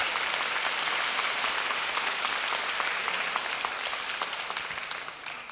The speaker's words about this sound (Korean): 우리 다시 한번 박수로 감사드리면 좋겠습니다.